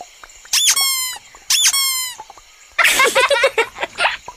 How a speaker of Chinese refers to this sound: Boots，Dora，嘿，Dora，来看看这个会叫的娃娃。